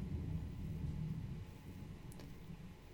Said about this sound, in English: There's some crazy thunder outside right now, so you might catch it on the recording.